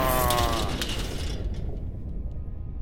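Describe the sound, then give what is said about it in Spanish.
A temple door mechanism in Atacama opens with a heavy mechanical grinding and creaking, like a large stone door rumbling open, loud and continuous with a harmonic groan early on that fades into a low rumble. “¿Así tienen que abrir esta puerta cada vez que alguien entra y sale?”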